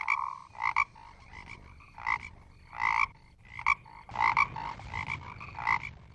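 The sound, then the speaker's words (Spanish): A toad croaks repeatedly in short, throaty bursts at an irregular pace, far off in a dense forest, clear over a faint low background hum, with no voices. “Y no se sabe si era un sapo o un tigre.”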